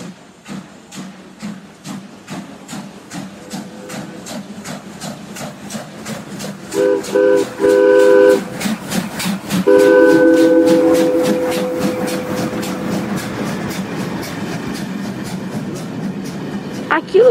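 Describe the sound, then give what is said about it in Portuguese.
A train rumbles by with steady, rhythmic clacking of wheels over the rails, while its horn sounds two loud, sustained blasts, the second one longer, before the rumble slowly fades. “foi o trem?”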